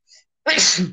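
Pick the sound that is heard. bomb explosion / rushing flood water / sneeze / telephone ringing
sneeze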